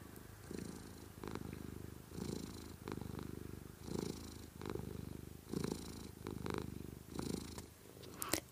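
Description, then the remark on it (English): A cuddly male cat purrs steadily, a low rumbling drone pulsing in regular breaths, roughly one cycle every second and a half, with no talking over it. “that purring cat, which you may”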